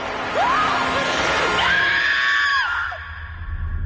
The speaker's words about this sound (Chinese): 随着娜娜的尖叫，德古拉的第一集到这里就说完了